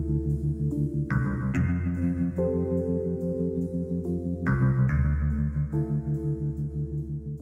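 Slow, moody instrumental TV theme music with sustained synth chords over a deep, pulsing bass line, shifting harmonies every second or so, steady and fairly loud with no voices.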